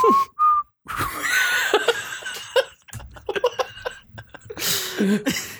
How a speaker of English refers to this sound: You're the one who said, "Give me a song." That's a hard. That's a hard whistle song.